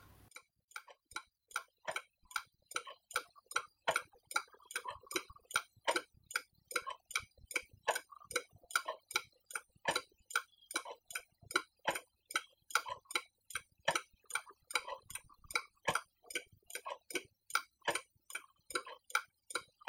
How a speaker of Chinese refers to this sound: 这也是就是钟表的声音带给我的。